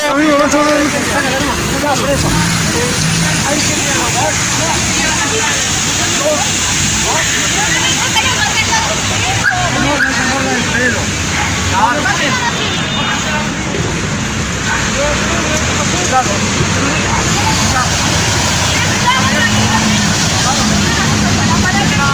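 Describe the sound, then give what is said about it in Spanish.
A Carabineros police water cannon truck sprays water at a student protest at Juan Moya and Irarrázaval, a little before 6 pm, in a steady, loud rushing hiss over a low engine rumble, with a noisy crowd murmuring throughout the scene. “la innecesaria intervención con carros policiales, carros las aguas, con el zorrillo.”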